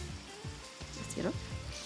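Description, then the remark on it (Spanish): Steady, dense hiss of heavy rain heard through an open window, continuous, with a voice briefly audible partway through. “Está lloviendo bien rico acá.”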